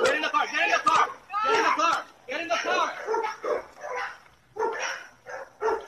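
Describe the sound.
A black dog barks in repeated bursts in a played video amid excited, overlapping human shouting, the barks and voices fairly loud, with brief pauses between outbursts.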